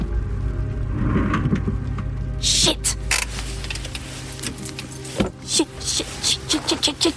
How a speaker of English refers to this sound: If it wasn't for the occasional passing car, you could feel totally alone here.